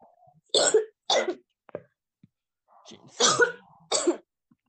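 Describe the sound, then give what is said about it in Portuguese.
Two bursts of wet, phlegmy coughing, each with two or three harsh hacks, separated by a short pause and a brief throat-clearing rasp. Loud, with no talking over it. “É, é o catarro.”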